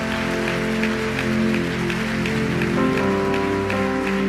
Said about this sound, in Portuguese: Se é para ele, faz melhor. Vai, vamos aplaudir direito.